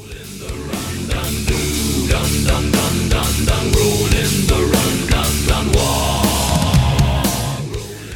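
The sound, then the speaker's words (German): Dense, loud heavy-metal-style music made only by singers' voices imitating distorted guitars and bass, a cappella, over steady pounding drums with regular hits, continuous throughout with no speech. “Die versuchen nämlich nur mit ihren Stimmen und Schlagzeug einen Heavy-Metal-Sound zu kreieren.”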